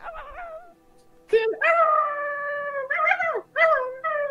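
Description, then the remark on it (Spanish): A person imitates a dog, like a Doberman, howling: a long, sustained wavering howl followed by two shorter rising howls, preceded by a softer whimpering whine. “Y, no eran de estos perros tiernos, sino que eran estos. Eh, como Doberman.”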